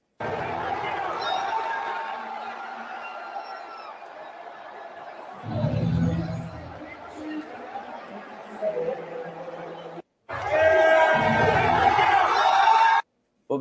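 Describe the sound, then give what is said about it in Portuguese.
A large crowd cheers wildly in a dense, continuous roar of shouts and chatter, swelling in bursts, cutting out briefly, then returning even louder before stopping abruptly. “público, então realmente indo à loucura com essa, com essa aparição mesmo, né?”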